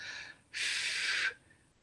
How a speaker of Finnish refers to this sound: Yksi, mitä voi kokeilla, on se, että esimerkiksi hengittää pitkään ja rauhallisesti ulos niin, että tekee huulilla pienen vastuksen siihen, semmoisen puhalluksen